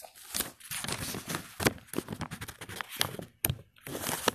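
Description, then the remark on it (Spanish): Rustling and crinkling of thin Bible pages that stick together as they are handled and turned, with soft scrapes and flutters continuing over several seconds, no voices. “Momentico, estoy tratando de... Las hojas se me pegan en la Biblia.”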